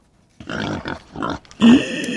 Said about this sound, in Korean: 네, 돼지 소리입니다. 네, 돼지 소리. 자, 한 번 더요.